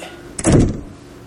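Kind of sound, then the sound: household object, door slammed shut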